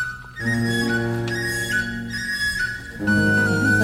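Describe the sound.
A flute on a record plays high, whistling sustained tones imitating birds over steady instrumental accompaniment, with bird sounds added in the background and a brief dip in the music before it swells back near the end.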